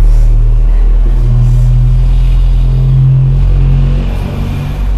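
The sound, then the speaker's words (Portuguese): A car engine rumbles steadily and loudly, its low drone rising and falling slightly in pitch for several seconds, with no voices over it. “É carro”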